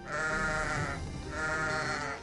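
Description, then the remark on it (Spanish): Two drawn-out sheep bleats follow each other closely, loud, each a wavering nasal cry with no talking around them. “Parece ser que las ovejas coli, de cara y patas negras a las que guardaba, dan lugar a parte de su nombre.”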